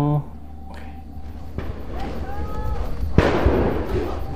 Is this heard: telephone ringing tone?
no